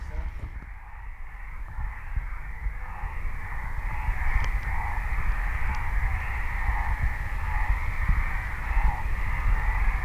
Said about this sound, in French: Il est exactement 23h07, hein, donc c'est une expédition. On aurait euh, pu prendre une lampe on va vite rien voir. on écoute les crapauds.